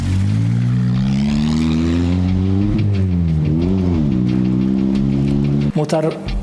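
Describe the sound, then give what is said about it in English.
A car engine revs loudly and steadily as the car takes off while Taliban men watch, its droning pitch rising and dipping a few times, then cuts off abruptly near the end. “They're all impressed at this thing uh, as it takes off.”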